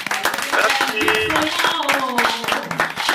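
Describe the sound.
Audience applause for a departing guest, a dense, steady patter of many hands clapping at a loud, even level for a few seconds, with faint voices and brief tonal sounds mixed into the crowd noise.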